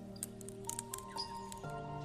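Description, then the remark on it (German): Soft, irregular crackling and tiny clicks rise from the water of a lake on a warm, sunny day, scattered unevenly over a couple of seconds above a steady low humming tone, quiet with no voices. “Es klingt wie ein leises Knistern und scheint vom Wasser selbst zu kommen, als würde der See dir leise zuflüstern.”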